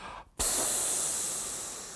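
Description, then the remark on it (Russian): After a brief pause, a person makes a sudden, loud, sustained hissing sound with their mouth, mimicking air rushing out of a punctured balloon, fading slightly over about a second and a half. “это я показал, как из проколотого шарика воздух выходит.”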